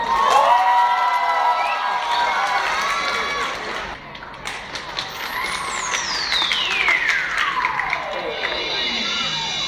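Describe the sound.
An audience at a singing competition claps and cheers loudly and steadily throughout as the final contestant is introduced, with excited shouting voices early on and a long, high tone gliding downward through the second half.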